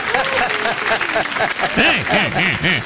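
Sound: audience clapping and laughing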